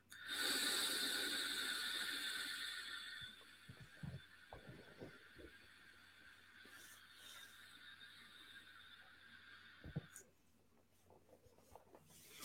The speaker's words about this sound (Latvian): Šis ir uh, It kā priekš MTL, laikam, domāts, bet, nu, gaisa, oh, oh, cik daudz. Nu, Atgriezt pilnībā vaļā, jā, un skaties, nu, es taču pilnu plaušu mierīgi veilot.